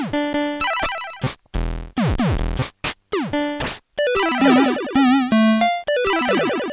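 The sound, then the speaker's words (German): A rapid string of bleepy 8-bit chiptune effects like 1980s Commodore 64 home computer game sounds: square-wave tones sweeping up and down, warbling vibrato notes, buzzy noise bursts and arpeggios, loud and constant with no voices. “Ähm, und bei mir kam ja irgendwann dann auch der Commodore 64 und das klang alles im Prinzip so, was ihr da eben gehört habt.”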